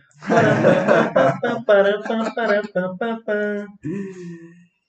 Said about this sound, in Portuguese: vamos para o nosso quadro, o cara da rodada. Sobe a vinheta.